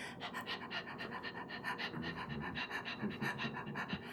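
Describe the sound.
Rapid, forceful breaths pump in and out at a steady quick rhythm, roughly four or five per second, sustained for several seconds with no talking: breath of fire, a fast, repetitive breathing exercise.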